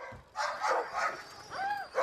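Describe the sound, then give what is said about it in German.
Excited sled huskies, growing impatient to run as they wait to be harnessed, bark in quick, overlapping bursts, with a brief rising-and-falling howl cutting through near the end; the clamor is steady and fairly loud, with no talking. “Das Bellen und Jaulen steigert sich zu einem ohrenbetäubenden Lärm.”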